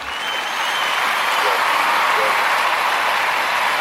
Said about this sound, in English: Yes, yes. Just giving you a round of applause. That's all.